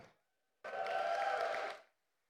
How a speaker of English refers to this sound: Don't have to clap for me. Don't have to clap for me. We're here for Jesus.